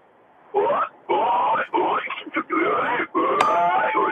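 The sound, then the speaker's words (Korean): A voice mimics an angry pig gobbling food: a run of loud, rapid, throaty grunts and snorts in several bursts, with brief gaps between them. “예, 돼지가 화났을 때 밥 먹는 소리 들어보겠습니다.”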